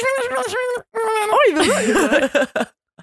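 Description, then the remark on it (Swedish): A voice imitates muffled gibberish chatter of a conversation overheard in a cartoon program, a rapid, sing-song mumble of wordless syllables with swooping pitch, fairly loud, running for about two and a half seconds. “Eller såhär när man överhör ett samtal i ett tecknat program och det låter såhär.”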